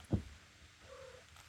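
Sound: cat purring and meowing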